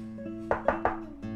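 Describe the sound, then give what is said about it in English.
Three sharp knocks on a city gate land in a quick, even sequence, each a hollow wooden thud, over a steady, low, humming musical tone. “Suddenly, a knocking was heard at the city gate”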